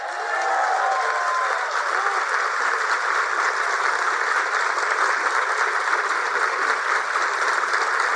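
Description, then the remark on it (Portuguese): Sustained audience applause at BNDES after the announcement that a forced-curve employee evaluation policy is revoked: dense and steady clapping from a large crowd, filling the whole stretch at an even loudness without letting up. “Nem todo mundo entende porque tantos aplausos.”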